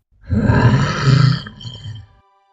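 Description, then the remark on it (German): A deep, rumbling monstrous roar swells loudly for about two seconds, dipping briefly before a second growling surge fades out, like a dragon's frightening bellow. “So setzte er geschickt vor der Kutsche auf dem Weg auf zeigte sich noch einmal von seiner ganzen Pracht, verschlang eines der Pferde und stieß vorsichtshalber noch ein furchterregendes Brüllen aus.”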